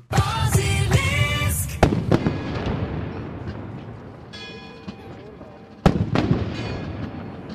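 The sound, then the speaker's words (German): Three loud ceremonial Böller cannon salute shots, part of the yearly Vogelgriff in Basel, boom out at irregular intervals, each a sharp blast with a lingering echo, over a steady background of outdoor crowd murmur. “Böllerschüsse, die gehören am Vogelgriff zu Basel jedes Jahr dazu.”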